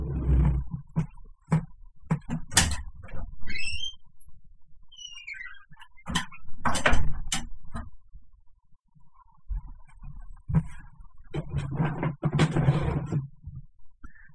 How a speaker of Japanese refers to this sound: えー、さっきからあの、ね、その話はするなということで、外からね、こう、窓の叩く音が聞こえてますね。呪われてるので。